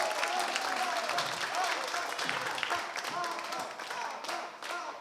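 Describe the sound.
A crowd bursts into sustained applause, dense rapid clapping filling the whole stretch at a steady loud level, with voices mixed in beneath the clapping.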